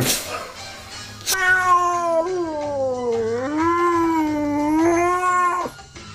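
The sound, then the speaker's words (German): A frightened, angry cat in distress lets out one long, loud yowl lasting several seconds, its pitch wavering up and down in a drawn-out caterwaul, over a faint background hum. “Katze in Notlage.”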